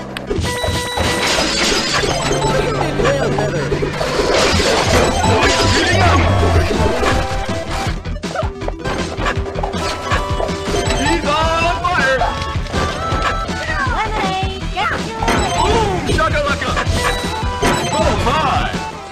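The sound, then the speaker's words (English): A dense, nonstop jumble of bright electronic game effects, chimes, zaps, crashes and jingles from the video game Video Kid, piling on top of each other, loud and chaotic like a bank of slot machines. “just a fucking cacophony. It sounds like modern slot machines, honestly.”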